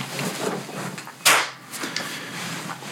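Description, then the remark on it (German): One sharp hand clap made for syncing a recording, a loud, bright crack that decays within a fraction of a second, standing out against a quiet, faintly noisy background with no talking. “Okay, dann machen wir einmal Klatscher.”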